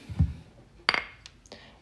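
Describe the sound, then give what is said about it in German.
Glasses are raised in a toast: a bright glass clink rings out sharply, followed by a few lighter taps of glasses touching, with a low thump at the start. “in äh, Bayern sagt man äh, Prost, zum Wohle.”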